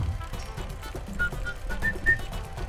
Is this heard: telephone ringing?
no